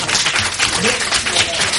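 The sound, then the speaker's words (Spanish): A crowd claps and applauds in a dense, steady burst that fills the whole moment, with a murmur of voices mixed into the clapping. “Por favor, ¿te ha pedido un aplauso?”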